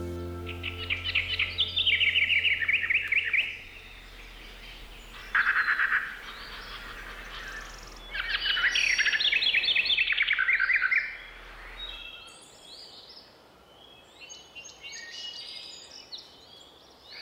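In the forest of a nature reserve, a blackcap warbler sings rich, fast warbling phrases in several loud bursts, then quieter overlapping chirps and calls from other birds follow, sounding like a scrappy exchange, with no talking.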